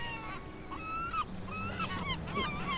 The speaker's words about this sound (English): Those birds. They're so persistent. I like them. Seagulls.